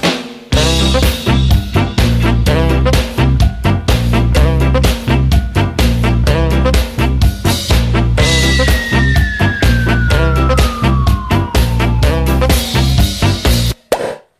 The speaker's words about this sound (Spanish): …. Bueno, la sintonía que indica que vamos a disfrutar de buena música en los próximos minutos